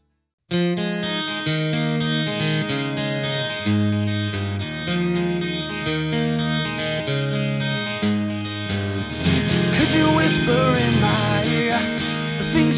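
A rock song plays steadily with strummed, effects-laden guitar chords and a driving beat, growing fuller and brighter near the end as more instruments and cymbals crash in. No one speaks.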